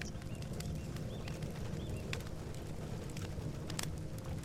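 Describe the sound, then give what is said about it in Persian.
A fireplace in a cabin crackles steadily with irregular sharp pops and snaps over a low, continuous rumble, moderately quiet, with no voices. “گرمای آتش رو روی پوستتون احساس میکنید صدای دلنشین آتش و صدای ملایم بارون که به شیشه پنجره برخورد میکنن و میشنوید”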